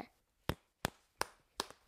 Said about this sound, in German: macht es jetzt gerade mal mit den beiden Möhren. Und das hört sich dann einfach wie so ein Klopfen an, ne?